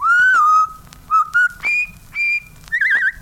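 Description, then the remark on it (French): Someone whistles the jaunty River Kwai march melody, with clear, moderately loud phrases separated by short breaths and ending in a trilling flourish. “siffle la rivière Kouai.”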